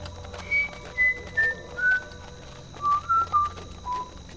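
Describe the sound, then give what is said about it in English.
Someone whistles a short tune, clear pure notes stepping downward in a brief phrase, a slight pause, then a few lower notes, over a faint steady background hum. “As Ichabod approached this fearful tree, he began to whistle.”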